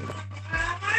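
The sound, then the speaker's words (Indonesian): The speaker's own cat lets out a single drawn-out meow, moderately loud, with a steady low hum running underneath and no one talking. “Nah, ini suara anak gue kedengaran kan kedengaran pasti”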